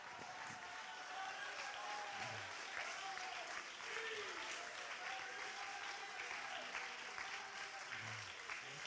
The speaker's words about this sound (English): Come on, somebody clap like it's alive.